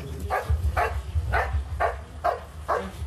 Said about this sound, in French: Au bout de quelques minutes, le chien aboie une potentielle victime se trouve ici.